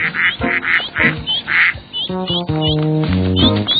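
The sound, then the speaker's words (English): Ducks quack in a quick series of raspy calls during the first half, followed by longer, steadier honking tones that carry through to the end. “Caillou wanted the whole family to come out of the water. Quack, quack, quack, quack, quack.”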